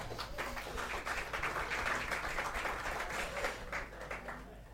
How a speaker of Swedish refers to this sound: En applåd för Kalle.